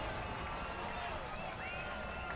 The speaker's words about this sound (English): Crowd making some noise here, trying to help the Blue Raider defense out.